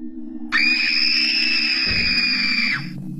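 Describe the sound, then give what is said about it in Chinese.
A woman waking from a nightmare lets out one long, piercing scream, loud and held steady at a high pitch for about two and a half seconds before cutting off, over a low background hum. “一声尖叫，阿芳从梦中惊醒。”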